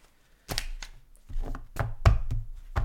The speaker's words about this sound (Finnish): no niin, nyt olen sekoittanut pakan.